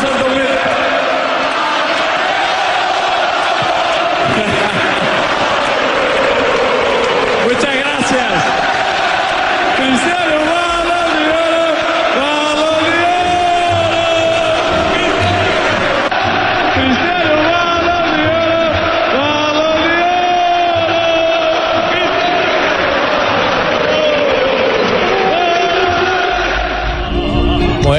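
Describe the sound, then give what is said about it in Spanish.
A loud stadium crowd at the Santiago Bernabéu roars and chants continuously as Cristiano Ronaldo comes out onto the stage, many voices rising and falling together in rhythmic waves of cheering for the full length, with no pauses. “Escuchemos lo, que se vivió en el Santiago Bernabéu cuando Cristiano Ronaldo salió a tarima, el todopoderoso hoy Cristiano Ronaldo.”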